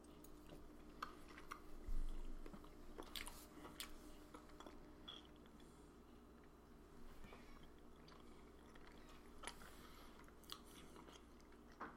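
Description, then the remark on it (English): Quiet chewing of a bite of pumpkin spice Beemster cheese, a cow's milk cheese, with soft wet mouth sounds and occasional crisp clicks, steady over a low background hum, with no talking. “It tastes like a good quality cow's milk cheese um, after you've had a sip of a pumpkin spice latte.”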